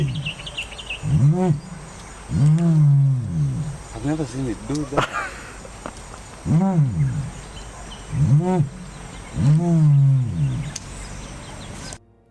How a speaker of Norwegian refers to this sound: For å få en pekepinn på hvordan dinosaurene kan ha hørt ut, kan vi dermed høre på store nålevende fugler, som strutsen. Bare hør på denne.